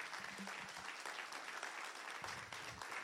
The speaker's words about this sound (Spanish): Dale un aplauso fuerte a Jesús.